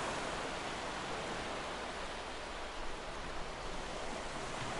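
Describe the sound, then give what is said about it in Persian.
A steady, soft rushing wash of gentle ocean waves on a white sand beach, continuous and even without distinct separate crashes, with no voices present. “برخورد امواج آروم با ماسه های سفید خط ساحلی”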